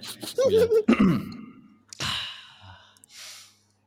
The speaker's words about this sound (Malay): Eh, nak kena ni, tak tarik nafas sikit panjang-panjang lah.